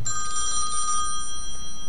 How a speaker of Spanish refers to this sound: ¿qué pasó? ¿No oyes un teléfono?